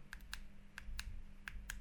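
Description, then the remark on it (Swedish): A series of sharp, distinct button clicks from a device's buttons being pressed, about seven in quick irregular succession, crisp over a low background hum. No voices. “Eh, som man hör knapparna ger liksom distinkta svar.”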